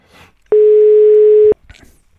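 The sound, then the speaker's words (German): A single steady telephone tone sounds loud and clear for about a second, a flat electronic beep like a busy signal after the called person hangs up, with faint voices murmuring just before and after. “Ah, hat aufgelegt. Der geht nicht ran.”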